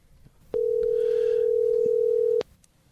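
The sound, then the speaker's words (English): A telephone rings on the line as a call is placed to a contest winner. One steady, mid-pitched electronic tone holds for about two seconds and then cuts off, with only faint background noise around it and no talking. “you can go ahead and call her.”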